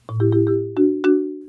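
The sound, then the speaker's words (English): A marimba plays a short, bouncy melodic figure of about six quick struck notes over a steady low bass tone, loud, with no talking. “It's that marimba sound that I alluded to earlier”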